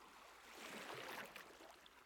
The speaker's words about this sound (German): Die Brandung ist ganz seicht. Kaum hörbar kräuseln sich hin und wieder einige kleine Wellen.